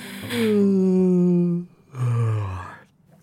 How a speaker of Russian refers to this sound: О-о-о, не-не-не, извини. Я зевнул, я зевнул, потому что просто устал. Тяжелый день, ну, сама понимаешь.